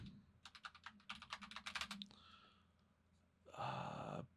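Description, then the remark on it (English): A quick burst of typing on a sensitive computer keyboard, with rapid clattering keystrokes for about a second and a half, then a pause and a short, breathy noise at the end. “Oh, sorry, it's such a sensitive keyboard.”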